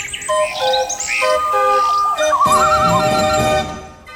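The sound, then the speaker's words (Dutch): A mechanical singing bird automaton at Museum Speelklok in Utrecht warbles a bright, whistling song of chirps, trills and sliding high notes, fairly loud and continuous for about four seconds with no talking. “De vogel daar kan zelfs zingen.”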